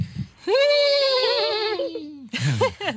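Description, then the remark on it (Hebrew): Several voices join in a long, wavering imitation of a horse's whinny, held for over a second and a half, then break into a shorter, warbling burst right after. “את יודעת לצהול כמו סוס? רוצה לעשות איתנו ביחד?”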